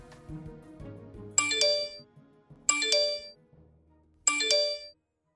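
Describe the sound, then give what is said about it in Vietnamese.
A phone's text message notification chime rings out three times at steady intervals, each a short, bright ding-dong with a ringing tail, loud, over a faint low background. “báo có tin nhắn liên tục reo khiến cô phải nhắn thật nhanh.”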